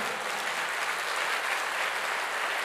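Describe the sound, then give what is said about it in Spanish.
An audience at a church service applauds the Lord steadily, a dense wash of many hands clapping at once with no break or change in intensity, filling the space at an even, fairly loud level. “Dele fuerte ese aplauso al Señor.”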